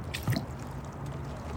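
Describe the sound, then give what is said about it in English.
A single soft, wet plop of a rower's oar dipping into the water of the Charles River on a calm early fall morning, brief, followed by a quiet low rumble with no voices. “You hear only the plop of the oars dropping below the surface.”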